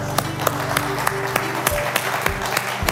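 A church audience applauds as a hand of praise to the Lord, the crowd's clapping dense and steady with sharper claps landing at a regular beat, over a low sustained musical drone.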